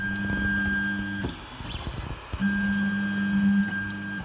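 A 3D printer printing sensors at the Fraunhofer Institute for Production Technology and Automation in Stuttgart hums and whines steadily, its motors droning in sustained tones that stop briefly midway amid soft clicks, then resume at full strength. No one speaks.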